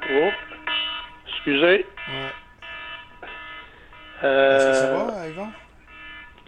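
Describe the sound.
A telephone rings with repeated electronic, melodic tones, steady in loudness, while people talk over and between the rings during a live radio broadcast.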